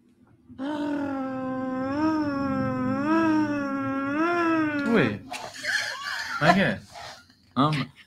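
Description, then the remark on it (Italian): A human voice imitates an air-raid siren, holding a long wailing tone that rises and falls slowly for about four seconds, followed by brief laughter and chatter. “Ah, una sirena antiaerea.”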